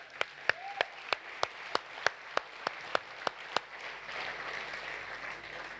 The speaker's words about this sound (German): Hey, Applaus, hä?